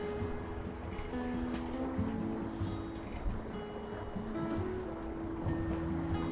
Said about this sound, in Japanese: ちょうどね、今、ボートとかが浮かんでたりとかしてて、海のヨット、ボート、いい感じですね。結構ね、ウィンドサーフィンというのかな、やってる人が多くて、いいですね。